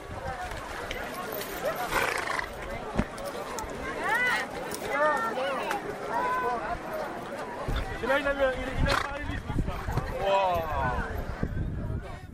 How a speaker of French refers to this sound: Là, c'est magnifique, il y a les chevaux qui sont en train de revenir du large. Ils passent juste devant, écoutez-les.